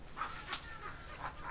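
A small dog gives several short, high-pitched yips and barks at irregular intervals, fairly quiet, with one sharp click partway through and a low background rumble.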